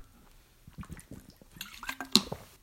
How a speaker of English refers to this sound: Ah, oh, I just had a piece of coleslaw coated in hot sauce that just went down one of the wrong pipes. Holy Toledo. I just chugged some water, like frantically chugged some water. I need to drink some more water.